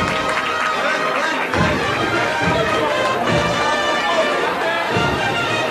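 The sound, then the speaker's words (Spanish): A crowd applauds the work of costaleros carrying a procession float (paso), a dense wash of clapping that holds at an even loudness for several seconds, mixed with a murmur of voices and shouts underneath. “El trabajo de estos costaleros que arranca los aplausos del público.”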